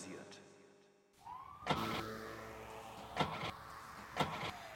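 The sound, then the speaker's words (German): A car starter whirs and grinds with a few sharp clunks at irregular intervals, the engine never catching after having been switched off. Moderately loud, with no talking. “Aber die Kiste geht nicht wieder an, wenn man sie einmal ausgemacht hat.”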